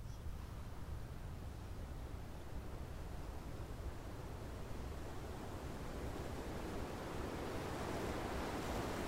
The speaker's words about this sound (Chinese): 接着，我们再来加入风声、水流声的。